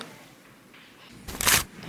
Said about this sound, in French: Je déchire une feuille.